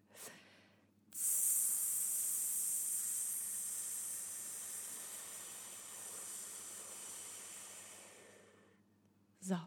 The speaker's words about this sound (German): Also vier Sekunden einatmen, sieben Sekunden festhalten, acht Sekunden kontrolliert, durch die Lippen durch, mit Soundeffekt, also tss, pf, tsch,